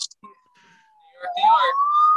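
A police siren wails, its tone sliding down and then climbing again as it swells from faint to loud, with some muffled background noise mixed in toward the end.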